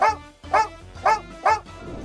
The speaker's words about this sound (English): Watch your pooch when it sleeps. If you see it jerking its legs as if it's running in place, or it's panting or whimpering quietly, it means the fluffy guy's in the middle of a dream hunt. Hey, my dog even barks in his sleep.